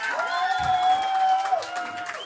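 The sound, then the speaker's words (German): A crowd cheers and shouts, with sustained whoops and high yells over a steady wash of clapping and noise, loud and continuous throughout. “Könnt ihr mal Applaus machen, so richtig schreien?”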